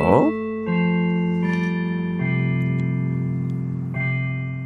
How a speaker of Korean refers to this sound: 자, 방송 중에 이렇게 종이 울리면 제가 키워드를 공개를 합니다. 그걸 문자나 콩으로 보내주시면 되겠습니다.